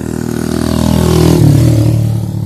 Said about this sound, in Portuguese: Meu Deus, quanto carro.